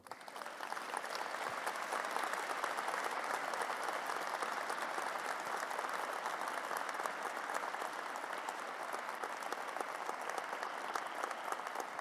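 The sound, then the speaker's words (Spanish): A large crowd claps steadily and loudly for about twelve seconds in applause to the Lord, a dense, sustained wash of many hands with no voices standing out and no letup. “Dale un fuerte aplauso al Señor.”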